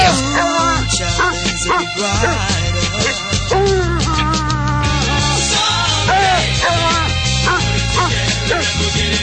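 A dog barks and yips intermittently, mixed into a full, loud song with steady bass and vocals that plays continuously throughout.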